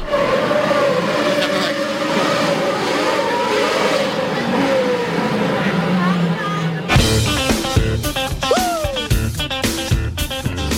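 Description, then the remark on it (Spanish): A Red Bull Formula 1 car's high-pitched engine screams loudly during an exhibition through the streets of Madrid, Spain, its tone rising and falling, then abruptly switches to sharper, choppier revving with quick pitch sweeps. “Hemos tenido los aficionados a la Fórmula 1 la suerte de tener aquí en nuestro país toda una exhibición que sonaba a las mil maravillas así.”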